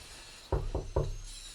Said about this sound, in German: Also, wenn mich meine Lauscher nicht täuschen, hat es soeben an die Tür unserer Zentrale geklopft.